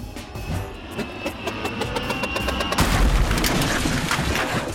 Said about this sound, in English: Yeah, yeah, don't mind us. Just knocked over a trash can or two on impact.